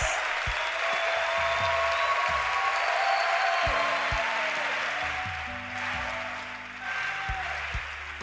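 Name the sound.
audience applauding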